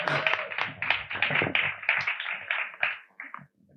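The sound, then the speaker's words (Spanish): A crowd applauds on cue, with dense, overlapping claps, steady and fairly loud for about three seconds before thinning to a few scattered claps and fading out. “Ahora es el momento de aplauso, ¿eh?”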